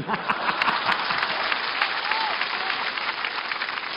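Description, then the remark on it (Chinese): A steady wash of audience applause at a xiangsheng (crosstalk comedy) performance, encouraging the performer to go on, fills the whole four seconds, many hands clapping at once in a dense, even crackle without pause, with no one speaking over it. “说呀，来，我们掌声鼓励他往下说呀。”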